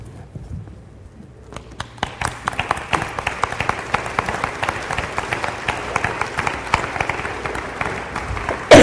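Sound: audience applause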